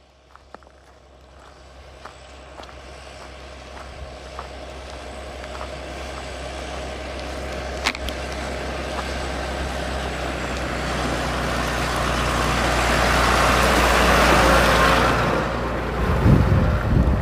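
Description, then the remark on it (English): A big tractor's heavy engine rumbles steadily and grows louder as it draws near, swelling to a loud pass before dropping away, with a few scattered clicks and footsteps and no talking. “Wow, there's a big uh, tractor.”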